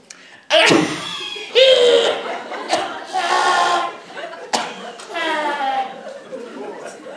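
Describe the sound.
A voice puts on exaggerated, theatrical coughs: four or five loud, harsh bursts, each trailing into a drawn-out groaning tail, spaced irregularly over several seconds.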